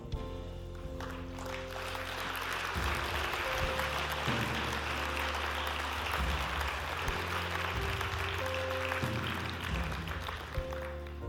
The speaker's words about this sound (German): Applaus